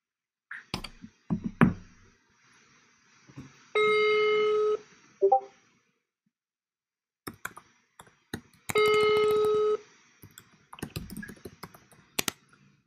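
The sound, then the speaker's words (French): A phone call being placed: quick dialing clicks and taps, then two steady buzzing ring tones, each about a second long, separated by a pause, with scattered clicks between them. “Allez, c'est parti, on va passer cet appel.”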